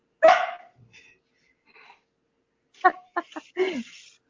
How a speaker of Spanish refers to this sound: esperamos un momentito a que terminen los perros o no sé.